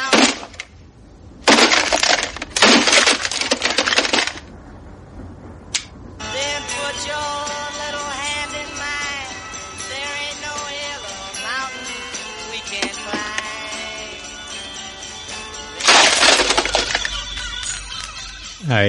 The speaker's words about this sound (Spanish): Eh, cuando Bill Murray directamente a las 6 de la mañana no tiene que hacer otra cosa que reventar el despertador contra el suelo. Yo creo que más de uno hemos soñado muchas veces en hacer eso, destrozar el radio despertador contra el suelo.